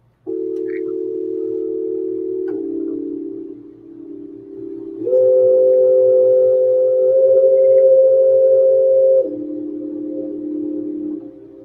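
A tape-based MIDI keyboard instrument, run through an echo and an amp, plays a slow arpeggio of sustained, slightly wavering, warbly notes that step up and back down in pitch, loud and steady with no talking.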